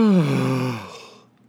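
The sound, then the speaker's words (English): A single drawn-out yawn: a voiced, breathy exhale that starts strong with a falling pitch, then trails off into a fading breath over about a second. “that was yawning. That wasn't a sigh.”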